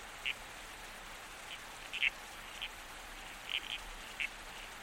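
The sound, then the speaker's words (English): Short, squelchy calls of red-crowned toadlet frogs pop up several times at irregular intervals, some in quick pairs, over a steady hiss of background noise, with no voices. Male toadlets croak to attract females and call to each other from beneath heath banksia trees. “Your toadlet community stays close, protecting and calling to each other from underneath the tangle of heath banksia trees.”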